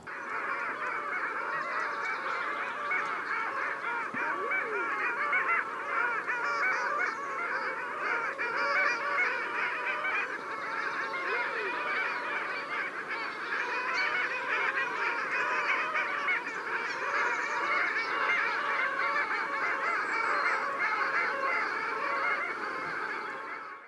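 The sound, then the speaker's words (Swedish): A large flock of long-tailed ducks calls continuously, many nasal, yodeling voices overlapping into a steady, dense chorus that stays loud and even throughout, with no talking. “Eh, det skulle vara märkligt om inte någon har varit ute och tittat på alla. för det är ju fint att höra sången om inte annat, den får man ju höra.”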